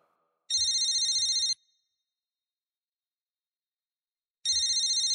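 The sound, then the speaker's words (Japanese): Katakura's mobile phone rings in two loud electronic bursts, each about a second long with a steady warbling tone, separated by a few seconds of silence. “片倉の携帯電話が鳴った。”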